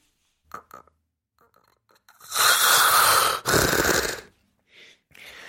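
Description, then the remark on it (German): A person imitates snoring, demonstrating the airway vibrating and then collapsing as the tongue falls back into the throat: a few short nasal snorts, then a long, loud, rattling inhaled snore that breaks off, resumes harshly, and collapses into silence, followed by faint breathy gasps. “Es war also irgendwann am Anfang vibriert es noch und irgendwann flutscht äh, klappt der der Atemweg zusammen wie so eine weich gekochte Nudel mhm.”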